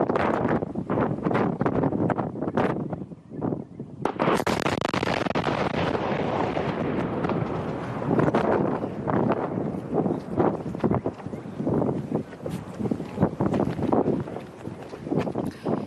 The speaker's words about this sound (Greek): γιατί υπάρχει καταγεγραμμένη η στιγμή τη ε, πρώτη έκρηξη στη διάρκεια ρεπορτάζ δημοσιογράφου από το Άστρα TV. Λίγο πριν από το ηλεκτροβία της Νέας Αγχιάλου, από, από όσο μπορώ να διακρίνω εδώ πέρα.